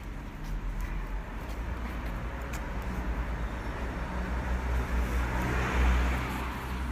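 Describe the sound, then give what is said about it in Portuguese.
Steady city traffic rumbles on Rua de Costa Cabral in Porto, Portugal, on a carnival-weekend Saturday in 2021, with a car passing and swelling louder near the end before easing off. No one speaks. “Os carros passam, mas o silêncio, outrora quebrado pelas pessoas apressadas, é hoje a marca dominante.”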